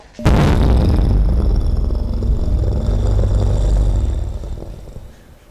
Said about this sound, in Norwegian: Og det var litt av en bombe også. Ikke et spor igjen av butikken. Hele øl og mat og bistro er borte.